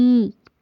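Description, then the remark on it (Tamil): A person imitates a green parrot's 'kee kee' screech with one drawn-out, nasal vocal cry held at a steady pitch before sliding down and cutting off, fairly loud, followed by faint small noises. “கிளி எப்படி கத்தும் கீ கீன்னு கத்தும்ல”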